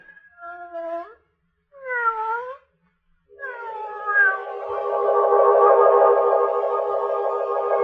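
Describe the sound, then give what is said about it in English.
A cat with yellow eyes, watching from a doorway, meows twice in short, rising-falling calls. It then lets out a long, drawn-out yowl that swells and holds, loud, with no voices. “No one can help you now, cat with the yellow eyes watching from the doorway.”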